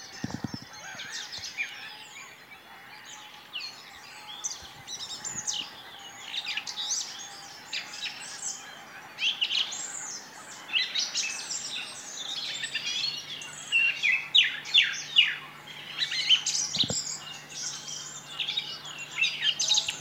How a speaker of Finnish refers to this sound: laulurastaalla on taas asia. Niin on. Päätti jatkaa esitystä. Rastaat on näitä aamun lintuja, jotka on suht voimakas äänisiä.